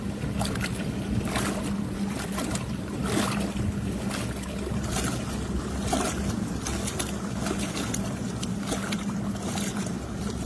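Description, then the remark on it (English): A small motor hums steadily at full throttle (100%) as a Big Fish 103 kayak cuts across the water at about 3.9 to 4 miles an hour, with a constant low drone, splashing and wind noise filling the background and no voices. “So I repositioned my motor a little bit, and my top speed, as you can see, fluctuates from 3.9 to 4 point miles an hour in this big fish 103.”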